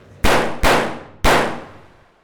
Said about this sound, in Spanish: Es la señal para que Gabrich se levante de su mesa, saque una pistola CZ-99 del abrigo y descerraje tres disparos contra la nuca de Arkan.